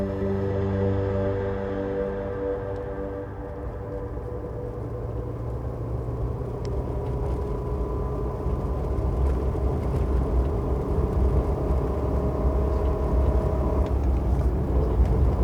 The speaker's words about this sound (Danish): Jeg sidder i en bil. Den er stor og blå. Sådan metallisk blå. Jeg sidder der sammen med min mor, og det er hende, der kører. Vi kører af landevejen. Og jeg ved, at vi er på vej til Sverige.